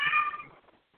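A single short, bright cat meow, fading out within half a second, followed by quiet background sound with no talking.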